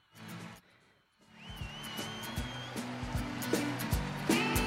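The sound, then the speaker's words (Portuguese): After a short quiet gap, background music put on by the speaker starts up and builds in loudness, with a steady pulsing beat, sustained low tones and a thin, wavering high melody. No one speaks. “Deixa eu colocar uma musiquinha de fundo aqui, pera aí.”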